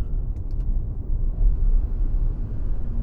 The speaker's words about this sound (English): There we go. So we've now got a bit of air conditioning noise.